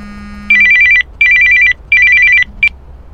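A telephone rings in a flat in Mumbai with a call from an old theatre senior in 24 Parganas, West Bengal, in three loud, evenly spaced bursts of rapid electronic trills, followed by the start of a fourth that cuts off abruptly. No one speaks.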